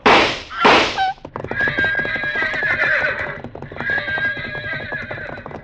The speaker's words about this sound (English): the pack horses reared at the shots.